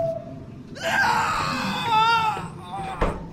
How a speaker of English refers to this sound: Well, on my way in, I heard lots of screaming. Why would that be?